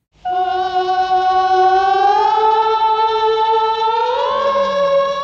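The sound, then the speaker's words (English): An eerie, wordless chorus of voices played backwards in a film score holds steady, then glides slowly upward in pitch, loud and continuous with an unnatural, reversed-sounding swell and no speech. “This is the eerie chorus of voices going backwards up the slide.”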